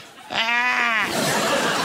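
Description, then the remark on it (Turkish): A person's voice imitates a goat's bleat with one wavering, nasal cry lasting under a second, followed by breathy noise, fairly loud. “Keçiler gayet de böyle bağırıyor.”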